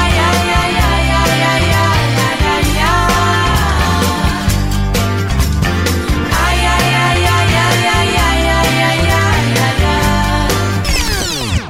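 A song's chorus plays loud, with a voice singing a repeated 'ai, ai, ai' over a full band and a steady beat, ending in a brief sweeping flourish.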